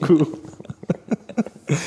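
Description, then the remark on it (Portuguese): A run of short, sharp coughs, several bursts spaced irregularly over a couple of seconds, fairly loud, from someone who has choked and is clearing their airway. “Deixa eu beber minha água aqui, mano. Eu engasguei.”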